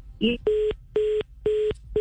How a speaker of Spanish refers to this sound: Bueno teléfono, no quiero decir de qué empresa es, está fallando la comunicación con pero se corta muy